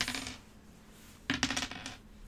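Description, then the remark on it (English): Dice clatter across a table: a brief rattle at the start, then a louder burst of quick clicks and bounces that settles after about half a second. No one speaks. “Man, I'd love to roll a nineteen today.”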